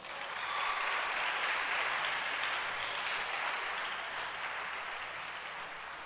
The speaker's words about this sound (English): Clap for Jesus.